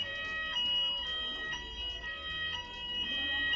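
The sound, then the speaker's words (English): A fire alarm in a studio building sounds continuously, a shrill, steady high-pitched tone with faint pulses about once a second, fairly loud, with no talking. “as you can probably hear, the alarm has gone off and we've got to get out of the studio”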